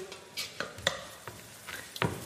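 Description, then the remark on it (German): Soft sizzling of spring onions frying in butter in a pan, with a utensil stirring and scraping the pan in several quick, irregular strokes. Moderately quiet, no talking. “Da ziehen wir jetzt gleich die Frühlingszwiebeln durch.”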